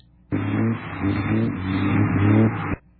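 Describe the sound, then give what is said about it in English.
A race car engine roars loud for a couple of seconds, a steady buzzing growl that starts and stops abruptly, with no voices over it. “There's a car.”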